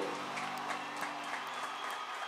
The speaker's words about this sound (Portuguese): Pode ser mais forte esse aplauso, meu irmão. Isso.